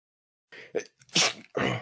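A single loud sneeze: a quick gasping intake of breath followed by a sharp, explosive burst of air that trails off into a breathy exhale, with no talking around it.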